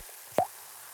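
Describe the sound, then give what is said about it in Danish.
A single short, hollow pop of a stopper being pulled free, with a bit of suction caused by underpressure, crisp against a faint background hiss, with no voices. “Ja, noget undertryk eller et eller andet, som gør, at den siger den der pop.”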